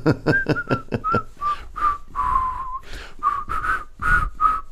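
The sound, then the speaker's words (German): Someone whistles a short melody, starting with quick repeated notes and then moving into longer held tones, clear and fairly loud with no talking. “Dann pfeift doch die Melodie.”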